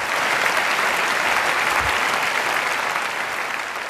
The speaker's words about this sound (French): il est applaudi à tout rompre euh, par la salle après avoir dit ça.